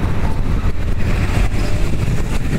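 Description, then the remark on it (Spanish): Steady, dense traffic rumble fills the scene, with cars passing continuously at a very busy street intersection, behind, to the right, to the left and in front of the listener, engine noise coming from several directions at once, fairly loud. “Esta es una intersección muy concurrida”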